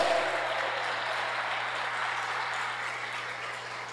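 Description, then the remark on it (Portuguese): An audience applauds to the Lord in a steady, dense wash of clapping that holds fairly constant for several seconds, then eases slightly toward the end, with no voices standing out. “Se você recebe, diga amém, se expresse, aplauda ao Senhor, faz alguma coisa.”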